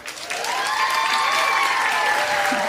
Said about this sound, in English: He only responds to hand claps and woman chants. So, women, please put your hands together and bring him in. Say,